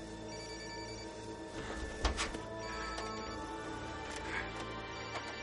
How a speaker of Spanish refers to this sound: El teléfono de Anacleto suena abierto y tirado en el suelo. En la pantalla dice Adolfo.